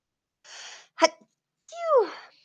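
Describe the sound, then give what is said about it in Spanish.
A single fairly loud sneeze: a breathy intake, a sharp explosive burst, then a falling voiced exhale trailing off. No talking around it. “Perdón, ahora sí pude estornudar.”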